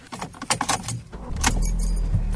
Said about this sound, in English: So we're going to start the car.